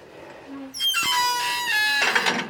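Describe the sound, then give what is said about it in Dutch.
A garden gate squeaks loudly in one drawn-out, wavering creak with shrill harmonic tones, ending in a rougher scrape as it finishes swinging, while it is raining. “Ik heb een piepend tuinhek, zoals je hoort.”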